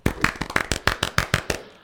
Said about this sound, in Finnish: Pikku, pikku aplodit sillä.